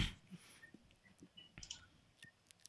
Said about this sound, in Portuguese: É, eu ouvi uma tecladinha é. ali.